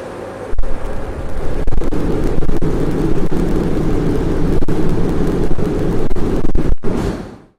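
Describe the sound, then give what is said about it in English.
A fusion plasma pulse inside a tokamak, the world's most energetic fusion reaction, recorded by a camera that survived the plasma: a loud, steady rumbling roar lasting several seconds, studded with a few sharp cracks, then cutting off abruptly into silence. “And you can actually hear what the world's most energetic fusion reaction sounds like because they somehow got a camera that could survive the plasma and released a video.”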